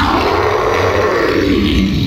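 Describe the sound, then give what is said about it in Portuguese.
A deep, gravelly roar from a gigantic man shouting as a door is opened, loud and sustained for about two seconds with a rough, growling edge and no other voices. “Vocês abriram essa porta, então, esse cara gigantesco gritando.”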